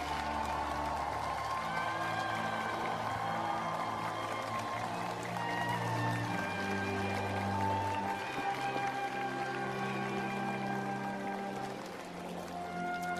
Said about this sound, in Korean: 아, 지난 5년간 국정 운영을 정말 훌륭하게 잘맞춰주시고 이제 어, 시민의 한 사람으로서 우리 곁으로 다시 돌아와 주신 문재인 전 대통령 그리고 김정숙 여사께서도 자리해 주셨습니다. 여러분 큰 박수로 예 환영해 주시기 바랍니다.